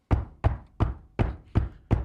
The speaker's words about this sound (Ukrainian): Або можна е, стукати наступним чином в двері.